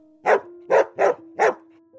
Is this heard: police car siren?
no